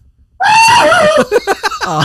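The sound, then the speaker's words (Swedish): A voice imitates a cartoon character's yell as he falls from a height: a loud, sustained cry that slides downward in pitch, then breaks into short choppy bursts like stifled laughter. “Eller när han trillar ja. från hög... Fast då måste jag skrika lite så jag går bakåt här ja.”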